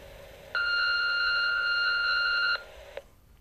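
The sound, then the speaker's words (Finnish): A single steady electronic beep from the answering machine of a bad parents' confession phone line, a bright sustained mid-high tone lasting about two seconds, heard alone over faint background hiss, followed by a small click. “Lue tunnustuksesi nauhalle äänimerkin jälkeen.”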